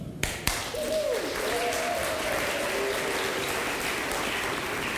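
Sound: audience clapping and cheering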